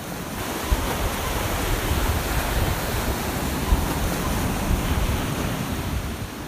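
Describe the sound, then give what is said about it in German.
Steady, full-bodied surf of the sea at Ostia near Rome, Italy, rushes on a shoreline, a continuous wash of breaking waves with gentle swells in loudness and a faint windy hiss; no voices. “Ich hatte meine Wohnung tatsächlich am Meer.”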